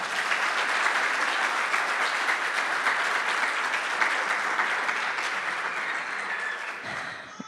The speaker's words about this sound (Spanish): Vamos a darle un aplauso a la familia.